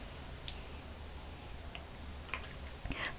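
sipping hot coffee

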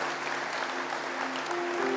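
church audience applause

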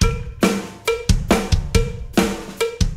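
cowbell being struck

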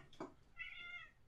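cat meowing

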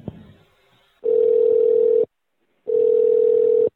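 telephone line tone

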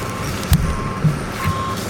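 truck reversing beeps

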